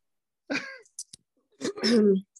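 coughing

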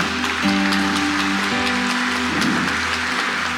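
audience applauding

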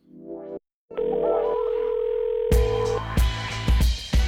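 telephone dial tone

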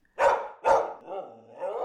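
dog barking

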